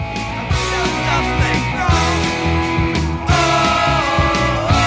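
A loud punk rock song plays without pause, with dense, distorted electric guitars and steady pounding drums filling the whole stretch, close and full, with no talking over it.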